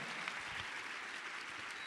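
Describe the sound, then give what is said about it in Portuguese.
An audience at a Christian worship service applauding people, a dense and steady wash of many hands clapping together at moderate volume, continuous throughout the short moment with no voices standing out. “Vamos aplaudir essas pessoas aqui.”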